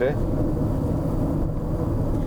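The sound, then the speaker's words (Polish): A steady, loud low rumble of a vehicle driving through a series of mountain tunnels, each about 3-4 km long, dense and unbroken, as if heard from inside the vehicle; a brief voice-like tone appears at the very start. “My teraz ciągle jedziemy między jednym tunelem a drugim tunelem. Przecinamy góry.”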